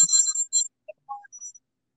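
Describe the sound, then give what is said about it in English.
A bright electronic bell chime, signaling that time is up, rings out in two quick bursts, followed by a few softer, scattered tonal blips that fade into silence. No one speaks. “So, um, with that being said, I guess the the bell is uh, time to sign off.”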